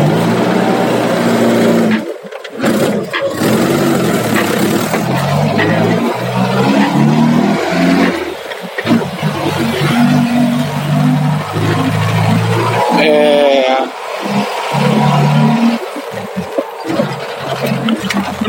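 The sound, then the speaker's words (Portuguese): A Chevrolet Opala's engine drones steadily during a night drive, its low rumble rising and falling with shifting revs, loud and continuous with a few brief dips and a rattling, whining texture on top. “Como eu já falei em alguns episódios anteriores, eu tenho um Opala. Deve estar tá dando pra ouvir bastante barulho dele.”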